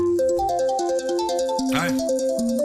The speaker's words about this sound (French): Alors encore cette sonnerie, hein, ça va, mais il y a des sonneries un peu plus cheloues. Par exemple, dans l'iPhone, et eh ben, t'as la sonnerie hibou